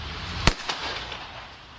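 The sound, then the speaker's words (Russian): A single sharp gunshot cracks out as a car starts to move during a police stop, against steady background noise, followed a moment later by a fainter echo-like pop. “Машина начинает двигаться, раздается выстрел.”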